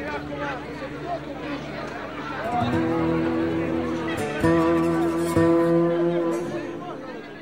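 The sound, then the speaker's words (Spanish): A crowd of people waiting in the street outside a school, murmuring and chattering all at once, a steady, dense hubbub of overlapping voices that swells slightly louder midway and holds throughout. “Mientras la chica camina, ve desde lo alto de la calle una cantidad inusitada de personas esperándola, curiosas por ver a la chica negra.”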